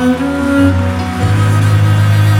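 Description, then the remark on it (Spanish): Steady applause offered to the Lord after a prayer, a dense crackling patter that holds evenly throughout, mixed with sustained keyboard chords that shift pitch a couple of times underneath. “Un aplauso al Señor.”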